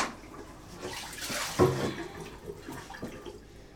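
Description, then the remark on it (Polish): Tap water pours steadily into a fairly large pot, filled to three quarters of its height for boiling potatoes, a broad rushing hiss with a brief louder splash partway through, with no one talking. “Woda poszła.”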